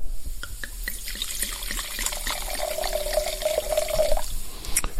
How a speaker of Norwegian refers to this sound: For den skal vi smake på nå, og da skal jeg helle oppi glasset.